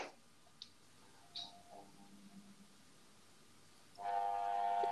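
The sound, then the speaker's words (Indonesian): After near-silence broken by a few faint clicks, an electric fan switches on and runs noisily, a loud steady whir with a droning, humming tone that continues to the end. “Kipasnya ribut bener.”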